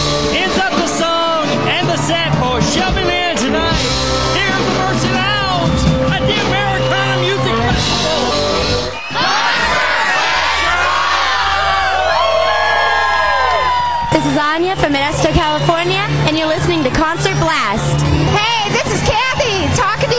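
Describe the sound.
A packed concert crowd in a jam-packed venue cheers and whoops loudly and continuously as a performer is introduced, with scattered high shouts and voices mixed into a dense roar that briefly dips before swelling again.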